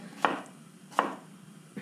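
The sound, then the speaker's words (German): A knife cuts kohlrabi slices into sticks about a narrow finger wide on a cutting board: three crisp thunks at a slow, steady pace, with quiet pauses between and no one speaking. “Und jetzt nehme ich, könnt es auch immer zwei übereinander nehme ich die und schneide sie ungefähr auch wieder, so einen knappen kleinen Fingerbreit,”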